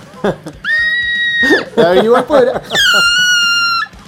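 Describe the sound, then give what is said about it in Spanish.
A person demonstrates a closed-throat vocal screech: two long, thin, high-pitched strained screeches, squeezed through a tightened throat, with shorter wobbly voiced squeals and laughter-like sounds between them, fairly loud. “Yo, por ejemplo, hago un chillido, que no lo voy a hacer ahora.”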